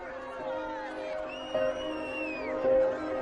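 A dense crowd of spectators in Donetsk on 24 August shouting and jeering at Ukrainian prisoners of war paraded by separatists, crying "criminals", overlapping voices forming a continuous roar, with a few sharper cries rising above the din, loud.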